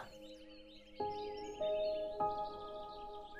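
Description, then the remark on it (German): Soft bird chirps and tweets twitter faintly in the background, layered under gentle sustained chime-like tones that strike every half second or so; no one speaks. “Du hörst die Vögel zwitschern, Insekten summen und du läufst leichtfüßig über die Wiese.”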